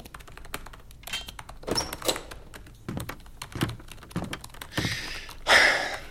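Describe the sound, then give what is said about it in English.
Keyboard typing as someone writes a chapter, a steady run of quick clicking keystrokes with brief pauses and a few harder, louder taps near the end, clear with no voices. “She's writing another chapter.”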